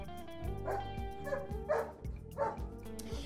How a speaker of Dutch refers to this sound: Ja, u hoort trouwens wat geblaf. Eh, en dat komt omdat we Spuitje bij ons hebben. Eh, ja, dat is een hond. de hond van de buren en daar, eh, daar passen we op.